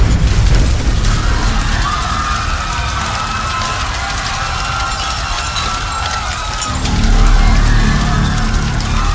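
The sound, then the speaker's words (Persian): Two red gasoline canisters, after gasoline is poured around and lit with a lighter, explode into a loud, continuous roar of rushing fire, with a deep rumbling blast swelling up near the end. No voices are heard. “در عرض چند لحظه این دو, گالون بنزین منفجر میشن”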